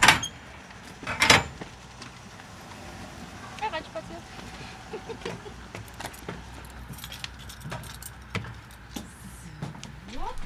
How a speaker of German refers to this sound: mit dem LKW Bücher in Dresden verteilt, öffnet die transparente Schiebetür und klappt die metallene Falltreppe herunter.